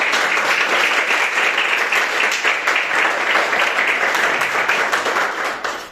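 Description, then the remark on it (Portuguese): An audience at a night church service claps steadily for several seconds to praise the name of the Lord, a dense, loud wash of many hands with a rapid, fairly even rhythm, tapering slightly at the end; no one speaks. “E as palmas que adorem o nome do Senhor nessa noite.”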